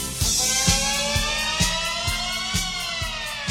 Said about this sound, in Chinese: 这一听就是救火车的声音嘛，难怪那天晚上大兴安岭着火了，是不是？